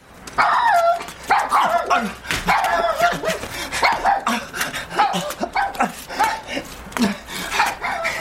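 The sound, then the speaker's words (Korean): A dog barks loudly and repeatedly at a man after dodging his kick, a rapid, agitated string of sharp barks with a few higher yips mixed in, continuing without pause for several seconds. “그의 발길질을 살짝 피한 개는 그를 향해 큰 소리로 지저댔다.”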